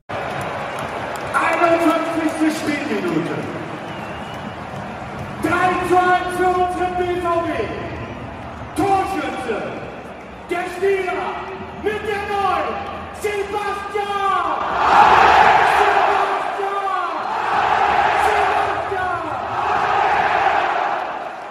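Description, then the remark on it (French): At a Borussia Dortmund football match, a stadium announcer bellows long, drawn-out calls over a big crowd that roars back in response, the cheering and chanting swelling louder toward the end. “Sébastien Haller a remarqué en plus la magnifique histoire, euh, la réaction du speaker, du public. Je vais vous la faire écouter parce que moi, ça m'a filé quelques frissons quand même.”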